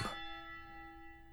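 A single clock bell strike, a clock striking one o'clock, rings out: a sharp metallic hit followed by several steady, clear tones that hum on and slowly fade, with no voices.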